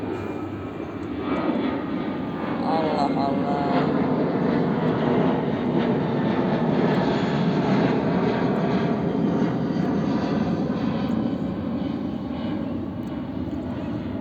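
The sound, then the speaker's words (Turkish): An airplane passes overhead with a loud, steady engine roar that holds for the whole stretch, while a voice briefly mutters something beneath the rumble. “Lan bu Uçak az önce geçtiydi.”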